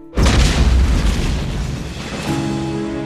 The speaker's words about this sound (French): Elle pourrait avoir été causée par l'électricité statique accumulée, il y avait de l'orage ce soir-là, et le fait de jeter les cordages d'arrimage au sol aurait pu déclencher une réaction électrique. Boum